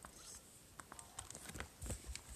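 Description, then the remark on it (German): Soft, steady rain patter from a video game, a quiet hiss with scattered light taps and a few duller thumps, with no voices. “Aber es regnet wieder perfekt.”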